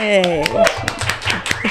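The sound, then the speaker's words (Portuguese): A studio audience welcomes a guest doctor, clapping in a steady, regular rhythm of sharp strikes, with voices cheering and whooping over the top and a low thumping beat underneath. “Recebo meu convidado, uma salva de palmas, gente.”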